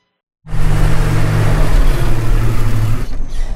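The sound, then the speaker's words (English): A loud Jeep engine starts up after a brief silence and revs with a deep, steady rumble, the low hum climbing and holding as the Jeep pulls in, with no talking over it. “If I had been driving a 4XE, you would not have heard that.”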